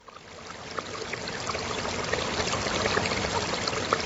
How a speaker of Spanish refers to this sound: Escuché un sonido inconfundible, el sonido del agua.